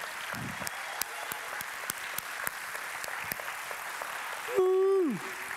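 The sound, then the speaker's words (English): A large church audience claps steadily for the speakers in a dense, sustained wash of applause, with a loud, falling whistle or whoop rising above it near the end. “Give it up for these guys. Come on, give it up for them.”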